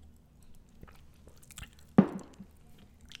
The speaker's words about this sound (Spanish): Déjenme, le pego un traguito a esto.